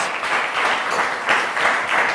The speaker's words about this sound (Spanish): Amén. Dele un aplauso al Señor.